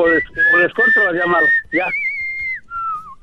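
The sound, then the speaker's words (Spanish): A pet parrot named Bionchi whistles, mixing harsh, chattery squawks with long steady whistle notes, then finishes with a couple of clear, sliding whistles that fall in pitch. “El pinche pájaro quiere plata para que, que se calle porque no puede contestar ya.”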